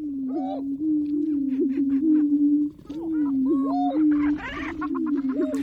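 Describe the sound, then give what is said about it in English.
Male greater prairie chickens display at a lek, recorded at dawn by nature recordist Lang Elliott: a steady chorus of low, droning booms runs throughout, with higher whooping calls and cackles rising above it. No one speaks. “Leks are breeding grounds where certain species, like these male greater prairie chickens, perform display rituals and compete for the affections of females.”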